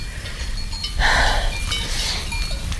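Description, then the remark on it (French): A flock of ewes bleats in overlapping calls while small bells clink and jingle steadily, with a louder burst of bleating around the middle against a low outdoor rumble. “Pour que ça marche, il faudrait que les brebis aient l'impression de choisir elles-mêmes l'herbe qu'elles vont manger.”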